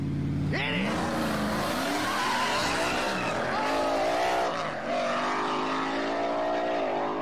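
Race car engines roar and rev upward with rising harmonic whines while tires squeal sharply during a final race, a loud, continuous burst of acceleration and skidding filling the whole stretch.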